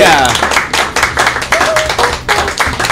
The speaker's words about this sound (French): Merci. On applaudit notre invité, bien sûr